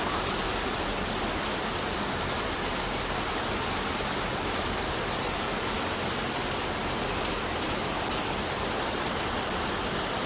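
Heavy rain pours down steadily outside a house, a dense, continuous hiss of countless drops drumming on surfaces, with no pauses and no voices over the full stretch.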